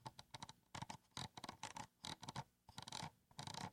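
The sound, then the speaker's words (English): Rapid bursts of small ratcheting clicks from the scroll wheel of a Logitech computer mouse held up to the microphone, coming in quick spins separated by brief pauses, with no talking. “You can hear those clicks. That's the way most scroll wheels work.”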